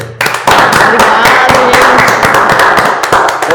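Loud, steady applause from a small group: a dense patter of many hands clapping at once, with sharp individual claps standing out, sustained for the whole few seconds.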